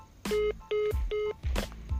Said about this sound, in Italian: Ok, è caduta la linea.